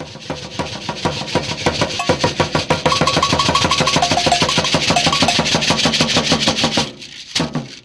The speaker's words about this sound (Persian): چیزی که شنیدین فقط یک قاشق لیلیپوتی بود از ظرف اصل زبانهای تبلی